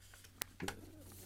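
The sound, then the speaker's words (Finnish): Two or three short, very high-pitched chirps from small birds, the feeding calls of an adult willow tit pair, the male feeding the female to strengthen the pair bond, thin and faint against a quiet background with no talking. “Et nyt mä tiedän, että moni kuulija ei valitettavasti kuule näitä korkeita ääniä, mutta ne, jotka kuulee, niin olkoon tilosi, että tämmöinen aikuisten lintujen parin sideen vahvistaminen ja ruokkimisääni.”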